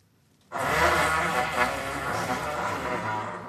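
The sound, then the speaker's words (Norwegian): A loud, long fart sound effect in a children's stage play blasts in suddenly after a brief pause, a rough, buzzing rumble that holds steady for about three seconds without any talking. “Det men så var den høyeste prompen jeg noensinne har hørt!”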